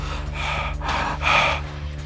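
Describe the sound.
Heavy, ragged animal-like breathing voiced by a person, imitating an animal running down a corridor: three harsh, rasping breaths in quick succession, fairly loud, over a steady low hum.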